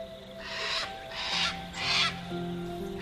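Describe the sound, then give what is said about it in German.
Three harsh, raspy squawks from a small cockatoo with a yellow crest bobbing excitedly, in an even rhythm and loud, over a soft sustained musical backdrop. “Während der kleine Vogel fragt, wer ihr seid.”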